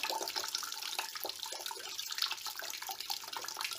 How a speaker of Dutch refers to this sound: Nu laten we al het eh, kop, de pekel uit het uh, eh, vergissingsvat lopen. Vergissingsvat lopen.